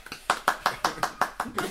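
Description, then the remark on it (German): A quick, steady run of about eight sharp, fairly loud hand claps, evenly spaced like one person clapping briskly, with a couple of softer taps at the start, given as live applause in a recording studio. “Live-Applaus, du kannst dir vorstellen, die Crowd draußen rastet gerade aus.”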